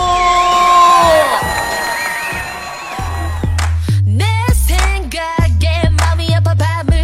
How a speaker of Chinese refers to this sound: Ladies and gentlemen，掌声有请主持人